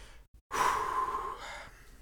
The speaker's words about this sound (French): Je, passerai peut-être le saut parce que j'ai soufflé fort, j'espère que ça n'a pas gêné vos oreilles.